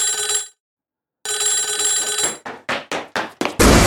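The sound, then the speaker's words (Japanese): A telephone bell rings loudly in two bursts separated by a short silence as a trainer places a call, then several quick clunking knocks follow before a brief burst of rough noise at the end. “ジムに行った田辺は、トレーナーの川端に、その診断結果を告げると、川端はエリーに電話をした。”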